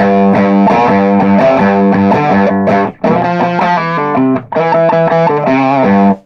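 A thick, fuzz-distorted electric guitar riff plays loud and sustained, with dense buzzing harmonics, broken by two short gaps where the chords cut out before crashing back in.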